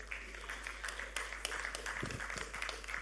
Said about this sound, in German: Da kann man auch nochmal klatschen. Ist gut.